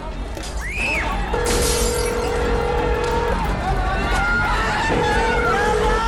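Glass shatters and crashes in a sharp burst, followed by scattered smashing and clatter over a constant roar of street noise and crowd murmur, with a steady tone sounding intermittently.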